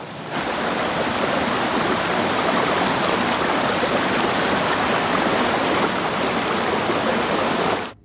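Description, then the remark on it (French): Steady rushing water of a flowing river fills the whole recording, a dense, continuous wash of noise with no voices, holding level before cutting off abruptly at the end. “c'est la rivière.”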